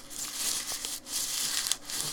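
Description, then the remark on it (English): Paper wrapping on a bottle of fruity raspberry beer crinkles and rustles continuously, a dense crackling texture with small sharper crunches, no voices over it. “It's wrapped in paper.”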